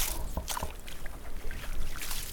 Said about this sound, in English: So, it really sounds like that get in for a nice, there we go, get some slush away, slush away, you can almost, you can just feel the cold. the ice water coming out of that puppy.